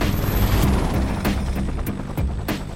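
A rescue helicopter with a crew of six in flight, heading northeast from Banak: a steady, loud roar of engine and wind with a low rotor drone and periodic thumping pulses, with no talking.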